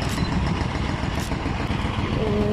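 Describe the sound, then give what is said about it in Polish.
A tractor engine rumbles loudly and steadily, a dense low chugging drone that holds at a constant level throughout, with no one speaking. “jakiś traktor też jest.”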